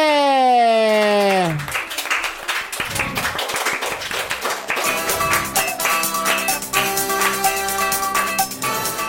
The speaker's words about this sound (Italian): benvenuti con un grandissimo applauso su Radio Sei Forte!